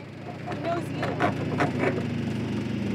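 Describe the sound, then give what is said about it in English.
A red, white and blue de Havilland Beaver seaplane landing on water in front of a boat in the wilderness of southeast Alaska: a steady, loud, low propeller-engine drone with a rumbling harmonic hum, broken by several brief hissing bursts of spray in the first two seconds. “A red, white, and blue seaplane that looks like it belongs in a World War II museum lands on the water in front of us.”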